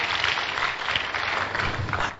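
An audience claps their hands together, a dense, steady patter of many overlapping claps sustained at an even loudness with no voices standing out.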